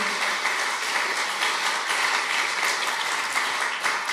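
Steady applause from an audience at a church in Hamburg, a dense, even patter of many clapping hands sustained at a fairly loud level for several seconds, with no voices over it.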